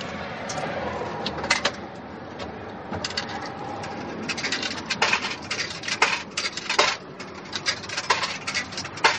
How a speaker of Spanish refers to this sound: va a la cabina telefónica. Pone monedas.